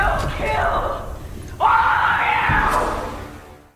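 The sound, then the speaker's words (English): A loud, sustained human yell bursts in suddenly, rising and holding strong for about two seconds before trailing off, with a rougher shouted voice underneath at the start. “I know that your yell is very loud and can shake the walls, but your yell ain't got shit on my yell.”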